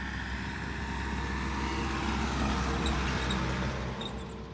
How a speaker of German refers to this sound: So, das ist das Auto, was sonntags hier vorbeifährt. es ist sonst hier total ruhig.